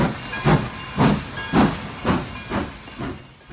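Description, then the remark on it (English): A steam locomotive chuffs in a steady rhythm, about seven bursts of hissing steam over a constant background hiss, moderately loud, with no voices. “As well as hauling enthusiast specials in the United Kingdom, the locomotive toured extensively in the United States and Canada from 1969 until 1973, and Australia in 1988 and 1989, and has been hailed as the world's most famous steam locomotive.”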